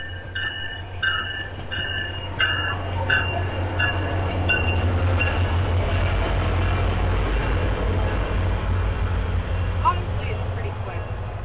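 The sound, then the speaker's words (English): A train rumbles past with a heavy, steady low roar, preceded by repeated horn blasts; the loud rolling noise fills the whole stretch. “Here comes the train.”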